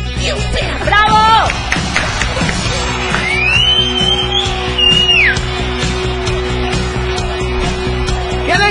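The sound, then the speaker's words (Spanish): The studio audience in the auditorium of radio station 97.7 applauds and cheers in a dense, steady roar lasting several seconds, with rising whistles and scattered whoops cutting through the clapping. “¡Que se escuchen los aplausos!”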